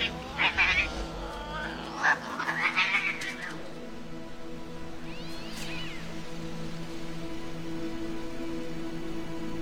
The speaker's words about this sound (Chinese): 然而就在路上传来几声猫叫